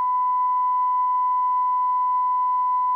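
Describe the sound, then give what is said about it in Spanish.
A steady, loud censor beep bleeps out a person's name in Spanish speech, holding a single pure tone for about three seconds, unbroken and alone with no talking over it. “Una persona, la cual sí voy a nombrar Pitido”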